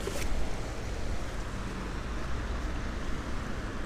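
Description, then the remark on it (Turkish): A steady roar of street traffic in a place with many cars, with deep engine rumble and broad road noise from vehicles going by. There are no voices, only continuous traffic sound. “Ve her zaman şu an çok arabalı bir yere geldim.”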